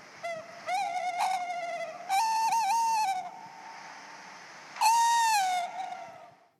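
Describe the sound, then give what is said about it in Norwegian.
A tawny owl hoots in a clear series: a short opening note, then a longer wavering, quavering hoot, and after a pause a final drawn-out call. No one speaks. “Men sangen kan mange gjøre, og det anbefaler jeg folk å ut og høre den synger.”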